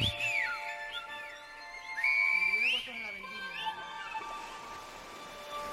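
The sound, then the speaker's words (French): Loud, sliding whistles in Silbo Gomero style, rising and falling in pitch in short phrase-like bursts over a steady background of sustained tones, with a brief lower vocal-like glide midway. “Sur le volcan de la balade, El Silbo perce la fumée.”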